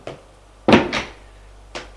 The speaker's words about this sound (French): La porte s'ouvre, c'est domestique.